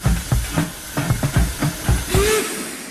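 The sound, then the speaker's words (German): Rhythmic bursts of hissing steam from a model steam locomotive sound effect on a model railway, triggered manually while the locomotive runs, chuffing in quick succession with a brief whistle-like tone near the end, moderately loud, with no talking. “Das wir sagen, wir drehen als quasi früher auch, Trafo aufdrehen, die Lok fährt und wir betätigen die Geräusche und, und die Effekte manuell.”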